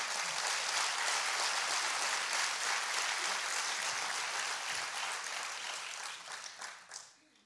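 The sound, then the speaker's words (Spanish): A church audience applauds for Jesus during a Spanish-language sermon, a dense wash of many hands clapping together that holds strong before tapering off and fading out in the last couple of seconds. “Dale un aplauso a Jesús fuerte.”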